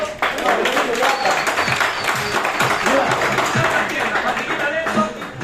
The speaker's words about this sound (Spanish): ¿A quién le gustaría, diga yo? Yo, yo, un fuerte aplauso.